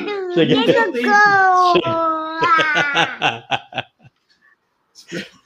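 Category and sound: human body sound, baby crying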